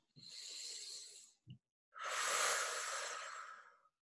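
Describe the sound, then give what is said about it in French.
A deep, airy breath drawn in through the nose during a breathing practice, a brief pause, then a longer, fuller exhale released through the mouth, clear with no talking. “On reprend une grande inspire par le nez, expire par la bouche.”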